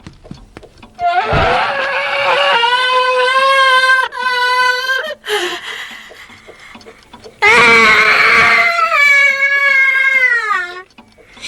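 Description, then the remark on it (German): A grandfather clock's alarm lets out a loud, shrill human-like scream: a long wavering wail, a brief break, then a second drawn-out scream, piercing, with no talking. “Ihr seht, eine schreiende Uhr ist nichts Besonderes für mich.”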